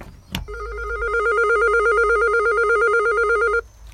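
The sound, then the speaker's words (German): A click, then an electric doorbell rings in one continuous, rapidly trilling burst of about three seconds, loud and steady, with no voices. “So, wir klingeln.”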